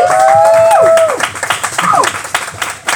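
Sustained audience applause for a singer, a dense wash of many hands clapping, with shrill falling whistles cutting through at the start and again midway, and faint cheering voices mixed in.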